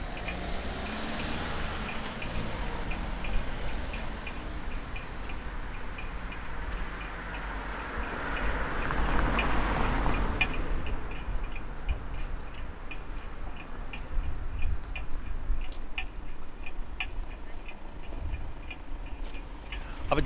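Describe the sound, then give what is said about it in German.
An acoustic pedestrian crossing signal in Vienna ticks in a steady, regular rhythm against rumbling street traffic, a vehicle swelling past midway before the clicking continues over the outdoor noise. “Das kann ich nicht ganz belegen, aber Wien hat viele akustische Ampeln und viele Leute stellen sich die Frage, wie sie funktioniert und viele Leute sagen, dieses Geräusch nervt, geht mir einfach auf die Nerven.”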